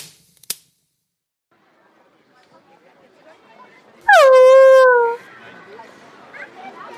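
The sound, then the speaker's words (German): A single loud, high yelp from a dog that someone nearly stepped on, sliding down in pitch into a drawn-out whine for about a second, with quiet background murmur before and after. “Sie wären ja fast auf meinen Hund getreten.”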